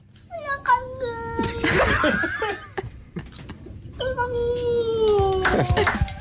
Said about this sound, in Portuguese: Olha, entra diretamente no top 3 dos melhores sons de sempre. ah, Mas é que eu não estou a imaginar o gato, estou a imaginar uma pessoa a dizer isto ah, na minha cabeça.